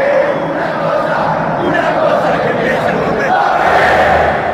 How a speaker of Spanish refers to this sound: lo celebra todo el estadio. Se pone de pie todo el público y el aliento crece.